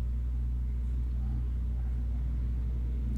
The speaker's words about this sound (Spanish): Ay, malditas motos. Perdón, si tú eres motociclista, discúlpame, pero es que, ay, me estresa el ruido que hacen. Ay, qué terror.